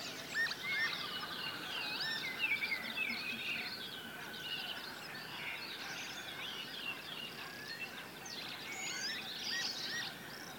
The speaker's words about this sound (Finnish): Ja kiuru on siellä koko aika koko taustalla. Koko ajan taustalla, Peltojen soittorasia.